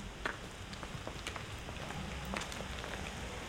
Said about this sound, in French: Il y a un petit ruisseau qui passe et qui va se rejoindre le, lot.